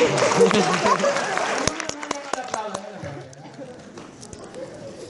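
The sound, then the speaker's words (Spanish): A short burst of group applause for a female participant who stood up, dense and lively at first, then thinning into a few scattered claps before fading, with voices talking over the end. “Un aplauso para la compañera.”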